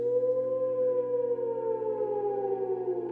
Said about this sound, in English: As you're discussing things outside the ruin, you hear eerie nocturnal howls come from not too far off.